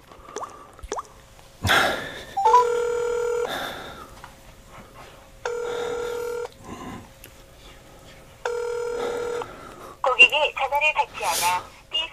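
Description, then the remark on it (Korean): Phone dialing tones are followed by three evenly spaced ringback tones, each about a second long with a pause between them, and nobody picks up; a call to the owner of the Ongcheon bear farm near Yeongsan. Brief talk and shuffling sounds come before and after. “거기 사장님한테 전화 좀 걸어보고.”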